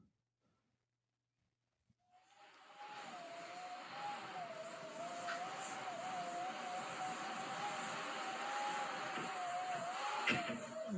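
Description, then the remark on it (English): After two seconds of near silence, a loud, steady roar rises and keeps going, with a wavering whistle-like howl riding on top, sounding like strong wind howling continuously, with winds around 70 to 80 and gusts just over 100. “here's the constant howl that we heard in the closet.”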